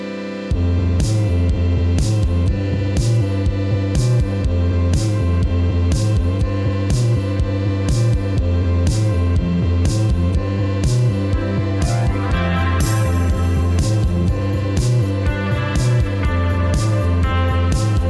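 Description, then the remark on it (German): Lo-fi, electronic-tinged 90s slacker rock plays steadily throughout, with a regular thumping beat under a thick, fuzzy wash of guitars and synths, loud, with no talking over it. “warten elektronische Klänge und 90er Jahre Slacker Rock mit Lo-Fi-Charme.”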